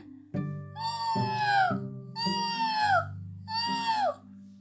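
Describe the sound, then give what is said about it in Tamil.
A voice imitates a jackal's call to gather a whole pack of jackals together: three drawn-out, wailing howls in a row, each bending downward in pitch at the end, loud with no speech. “அப்படின்னு சத்தம் கொடுத்து எல்லா குள்ளநரி கூட்டத்தையும் ஒரு இடத்துல ஒன்னா சேர்த்துருச்சு”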